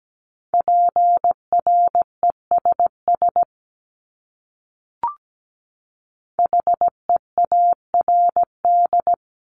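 Morse code beeps at 17 words per minute in a steady mid-pitched tone, sent as two bursts of quick dots and dashes separated by a pause with a single short click, clean and alone with no voices.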